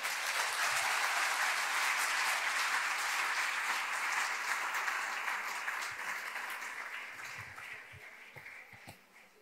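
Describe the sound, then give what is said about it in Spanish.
A crowd applauds the Lord loudly after a sermon, a dense wash of many hands clapping at once that holds steady before gradually thinning and fading toward the end, with no voices over it. “Dale un aplauso fuerte pues al Señor.”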